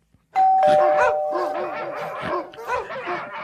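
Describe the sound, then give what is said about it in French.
A doorbell chime, one of the models from Les sonnettes de l'Estrie, rings out with a sustained tone, layered over a chorus of dogs barking and howling loudly for the rest of the moment. “On a tous les modèles de sonnettes, que ce soit la classique ou euh, celle-là.”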